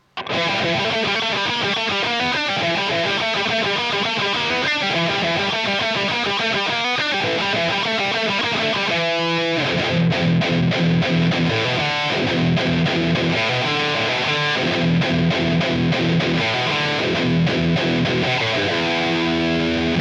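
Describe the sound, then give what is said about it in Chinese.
Distorted electric guitar through an amp, miked about 25 cm from the grille, sounding bright and harsh as dense riffs play loudly and steadily, with a brief break partway through and no talking. “那最后咱们再把话筒拉远，到离音箱的网罩大概二十五厘米左右的距离。那这个时候啊，高频就占据了绝对的优势，声音相比而言呢，就烈了很多。”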